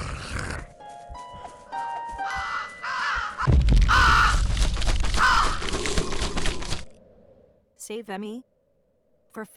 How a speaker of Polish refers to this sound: Dobra, kruk mnie musi zjeść. Więc pozwólmy na to.